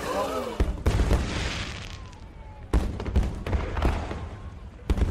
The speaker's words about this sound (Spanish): De repente, los fuegos artificiales se dispararon hacia el cielo.